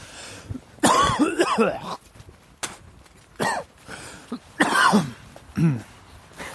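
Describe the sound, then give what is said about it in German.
Harsh, hacking coughs come in about four loud bursts, the first a long raspy fit, the rest shorter spasms, separated by brief pauses with no talking. “Das besinnliche, der besinnliche Keuschusten.”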